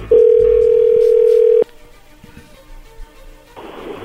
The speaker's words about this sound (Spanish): Qué bárbaro, ahí se está marcando, no haga ruido.